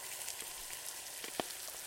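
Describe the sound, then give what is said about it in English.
An egg cracks into a hot pan in a kitchen: a steady crackling sizzle runs throughout, broken by one sharp click near the end. “And then that's when you hear a crack of an egg and the sizzle of a pan in the kitchen.”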